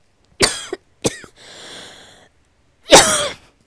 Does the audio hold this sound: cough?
yes